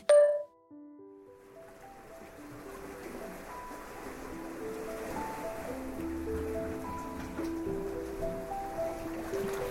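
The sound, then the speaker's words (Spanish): Ocean waves wash steadily against the shore in a continuous, moderately loud roar, opening with a brief bright chime and carrying soft sustained musical tones over the surf. “Ambos de frente al océano han dejado sus cabellos al aire. Inhalan el aire salado que viene del mar.”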